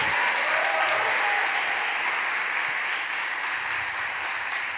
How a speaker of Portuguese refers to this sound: Pode aplaudir o Senhor aí. Pode dar glória a Deus em nome de Jesus.